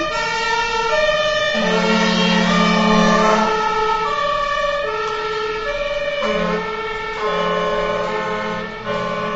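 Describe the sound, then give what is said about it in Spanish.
A loud ambulance siren blares outside, its harsh, steady tones shifting between pitches and easing slightly toward the end as the vehicle passes. No one speaks. “Eh, otro de los motivos podría ser esa ambulancia.”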